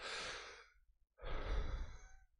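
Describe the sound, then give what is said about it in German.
Two breathy airflows with no talking: a long deep draw that fades out, a brief pause, then a second heavier, rougher breath, as a smoker inhales cigarette smoke down the throat deep into the lungs. “Ihr hört das jetzt gerade bei mir die Raucher wissen, von, von was ich spreche, ja. So diese, wenn der Rauch runtergeht, so an, an, an, an am Rachen runtergeht und in die Lunge, man spürt das.”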